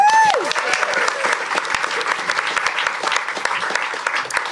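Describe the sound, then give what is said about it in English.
An audience claps steadily for Honey Wilde, a dense wash of many hands with no pauses, sustained and fairly loud throughout. A brief whoop or cheer rises and falls at the very start. “Round of applause for Honey Wilde.”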